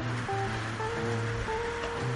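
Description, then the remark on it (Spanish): Steady storm rain, heard from a small balcony on 27 April 2020, pours in a continuous, even hiss and patters on the window sills. It stays moderately loud throughout, with a faint low hum of traffic beneath it and no voices. “con la lluvia que repiquetea en los alféizares de las ventanas.”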